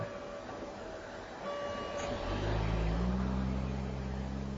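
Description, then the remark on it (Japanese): A taxi drives past outdoors, its engine rumble and road noise swelling steadily louder and deeper toward the end. No one speaks. “また車がね、タクシーだね。”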